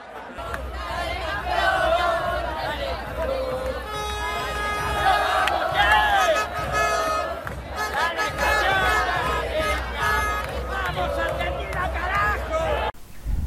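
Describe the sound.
A large crowd of celebrating Argentina football fans in the Puerta del Sol, Madrid, Spain fills the air with continuous loud shouting, chanting and cheering, with overlapping voices and whistles sustained throughout before cutting off abruptly at the end.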